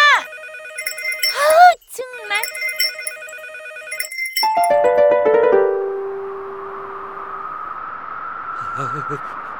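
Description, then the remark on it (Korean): A bright electronic bell rings in steady repeated bursts while a voice talks over it, then a falling run of chimes gives way to a broad rushing noise. “아우 뭐야 이 종소리.”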